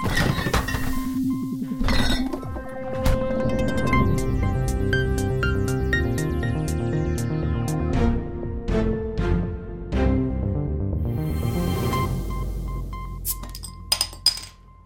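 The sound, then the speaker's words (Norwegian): A short jingle for the rush-hour news on Radio Nova, built around bright clinks of beer glasses, with repeated chiming taps and ringing tones layered over a steady melodic backing, loud, with no voices. “Det er vanskelig å høre den jinglen og ikke tenk på øl.”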